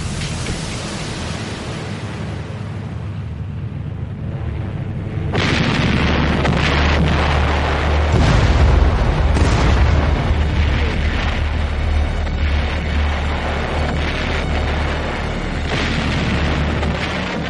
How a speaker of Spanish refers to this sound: El Día del Amor, como se bautiza al asalto, comienza de manera brutal. Bueno, se realizó un bombardeo sin precedentes para una operación anfibia.